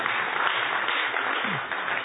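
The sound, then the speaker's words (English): An audience applauds a man's young daughter with steady, dense clapping that holds at an even level throughout, a continuous wash of many hands with no voices standing out. “Round of applause for this.”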